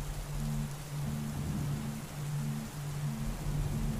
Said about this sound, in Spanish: Pero para eso está la lluvia.